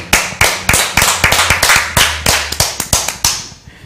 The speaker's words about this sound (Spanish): Le damos un fuerte aplauso, papá. Yo estoy disfrutando esto.